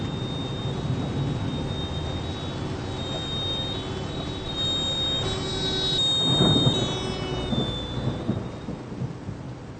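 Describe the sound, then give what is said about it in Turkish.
Steady rain hisses throughout while thunder rumbles low and continuous, swelling into a louder roll around the middle before easing off; a faint high whine runs along underneath. “Tief Tim bringt heftige Regenfälle und Gewitter nach Bayern. Regen, Gewitter. Das merke ich auch so.”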